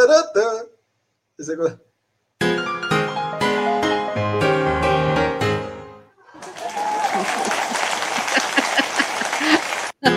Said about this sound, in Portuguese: aplauso foi sem querer.